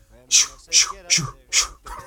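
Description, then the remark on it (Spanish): A foreigner in an airplane aisle imitates a dog to get past, producing four short, evenly spaced yelping barks, with a faint vocal trailing off at the end. “como un perro.”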